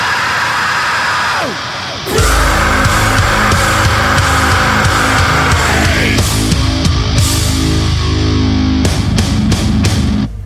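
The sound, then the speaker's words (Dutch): A metalcore song with a hard breakdown: a short, quieter intro with a falling sweep gives way at once to loud, dense distorted guitars, pounding drums and screamed vocals, with chugging stop-start hits near the end. “Eh, het is gewoon metalcore zoals het moet.”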